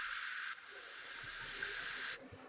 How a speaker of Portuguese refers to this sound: E, e, e começa a ouvir uma estática, começar a aumentar o volume de